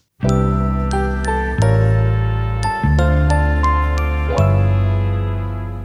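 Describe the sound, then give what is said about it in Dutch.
An instrumental intro from a recorded song: loud, ringing chords struck roughly every second, each sustaining into the next, with no singing or talking. “En het is, eh, dit is nou een voorbeeld van een liedje.”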